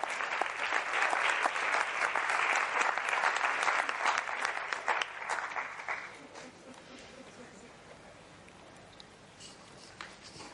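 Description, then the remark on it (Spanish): An audience at a talk claps loudly for about six seconds, a dense patter of many hands, then the applause thins out into scattered claps and quieter room noise. “Vamos a dar un aplauso a la gratuidad de la respiración y de la sonrisa.”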